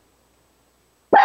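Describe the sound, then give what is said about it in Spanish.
After about a second of silence, one of the speaker's dogs gives a single loud, sharp bark at home while the speaker works from home, cut off at the end. “Perdón por mis perros, pero el trabajo en oficina, en casa, a veces así se propone.”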